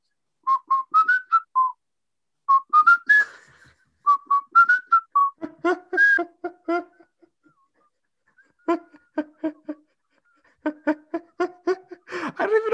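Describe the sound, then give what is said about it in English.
A person whistles a bouncy, upbeat ska melody in short repeated phrases with brief pauses, clear, followed by a lower, breathier whistled riff with staccato notes, no talking. “And this is how you do it. You go.”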